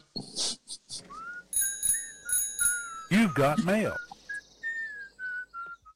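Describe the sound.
A cheerful whistled tune carries on throughout, punctuated by a few bright bell rings, a short spoken line and a brief burst of yelping barks near the middle.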